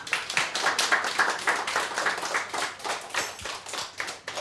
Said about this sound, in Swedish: En liten applåd är han värd.